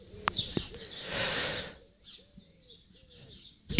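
A series of short, repeated bird calls comes in a steady rhythm, fairly soft, after a brief rush of noise and a couple of sharp clicks.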